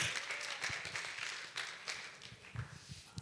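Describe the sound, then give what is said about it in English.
A worship crowd claps together in a sustained round of applause for Jesus, a dense stream of overlapping sharp hand claps at steady moderate loudness with no voices on top. “Let's give a round of applause for Jesus. Yes, clap it.”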